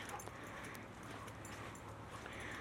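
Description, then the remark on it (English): A dog pants steadily on a day probably in the 80s °F, quick breathy rasps repeating in an even rhythm over a low background hum, with no voices. “Yeah, you can hear him panting.”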